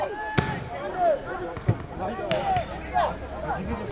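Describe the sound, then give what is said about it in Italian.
Kids' voices shout and call out across an outdoor football pitch, overlapping, with sharp thuds of a ball being kicked punctuating the lively play, at the Coviello municipal pitch, the 37th Federal Territorial Centre, in Viggiano. “Provate a sentire le voci dei ragazzi.”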